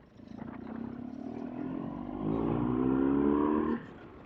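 Many cars pass by on a road, a steady engine drone that swells louder midway, then drops off abruptly near the end. No one speaks.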